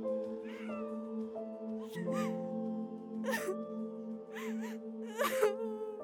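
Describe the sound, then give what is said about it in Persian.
A person wails and sobs in drawn-out, quavering cries, with breathy gasps between them, over a steady sustained tone in the background. “گریه کن مادر گریه کن”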